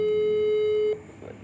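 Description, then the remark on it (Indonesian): A phone's ringing tone sounds as one steady, loud electronic hum for about a second, then cuts off abruptly, leaving faint low background murmur. “nih telepon nih nih berdering ya berdering ntar dulu sabar nih”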